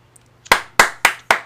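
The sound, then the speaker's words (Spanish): Four crisp hand claps in a quick, steady rhythm, fairly loud, a single person briefly applauding himself after a rhyme, with no voices alongside. “Aplausos, aplausos para mí, ah.”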